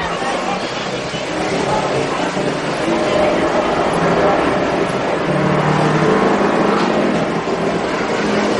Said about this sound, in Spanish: Luego mira hacia la carretera y ve pasar un autobús rojo.